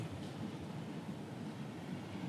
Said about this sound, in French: ce ressac, ces bruits des vagues, là il y en a un peu moins, mais qui vous berce, quoi. Quel, plus merveilleux bruit euh, que celui-là, je n'en connais pas, moi, enfin personnellement.